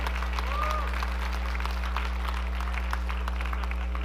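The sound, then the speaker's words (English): An audience claps steadily for several seconds, a dense, even patter of many hands filling the room over a low electrical hum, with no clear break or climax. “Okay, don't clap for everyone.”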